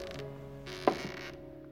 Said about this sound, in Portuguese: O terceiro degrau rangia. Para que a mãe não ouvisse, pulou apoiando-se no corrimão.